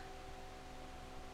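A steady, low mechanical hum with a broad airy hiss from an industrial fan running continuously at a fairly quiet level, with no voices present.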